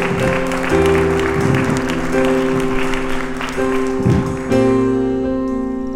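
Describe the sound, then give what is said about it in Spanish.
A church audience applauds the Lord with dense, steady clapping throughout, while sustained keyboard or organ chords ring underneath and change several times before the clapping thins out near the end. “Otro le ponemos un aplauso al Señor fuerte.”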